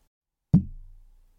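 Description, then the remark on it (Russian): A single dull knock as a tea cup holding jasmine oolong bumps the microphone in an attempt to clink through it, a sharp hit followed by a low, boomy ring that fades out in under a second, with no talking. “Это было типа попытка чокнуться через микрофон.”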